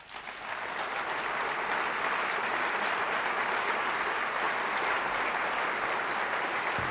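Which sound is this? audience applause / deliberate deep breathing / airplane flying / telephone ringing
audience applause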